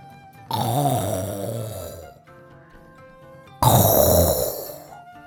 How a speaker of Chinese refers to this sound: 奇怪的帽子里藏着一个呼噜，它叫起来，地板、窗户都会动的，吓死人了，吓死人了！ 可不是吗？老爷爷在打呼噜